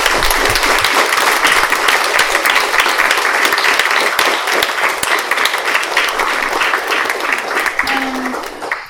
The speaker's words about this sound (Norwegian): En uh, liten applaus.